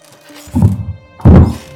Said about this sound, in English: I began to hear what sounded like footsteps in the attic. It seemed as though the footsteps were moving back and forth across the attic floor. Gradually, the footsteps got louder and louder